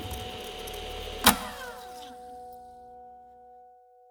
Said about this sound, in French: Le camion roule, sa vitesse le trahit. Il cherche une lumière dans la nuit.